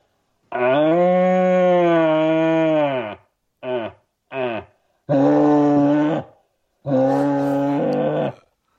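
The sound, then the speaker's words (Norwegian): A person imitates a red deer stag's rutting roar, the loud roar most stags make: one long, deep, drawn-out bellow, two short grunts, then two more loud roars, strongly harmonic, with no other sounds. “Bare for å få eh, oppmerksomheten til bukken og ikke skremme kollene som eventuelt er i eh, i, i området hvis jeg hadde dratt på et sånn skikkelig brøl som de fleste bukkene gjør.”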